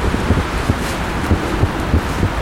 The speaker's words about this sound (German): nicht so viele Geräusche, oder? Also die Autos, der Wind.